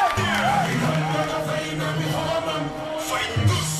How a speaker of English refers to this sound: So let's give us a big applause. Et ça, c'est du vous en féliciter. Je vous demande de vous applaudir très fort. Merci à tous.